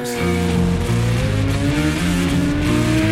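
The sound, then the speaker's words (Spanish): Racing motorcycle engines rev loudly and continuously, their pitch stepping up and down as if through gear changes, with no voices over the roar. “y las motos.”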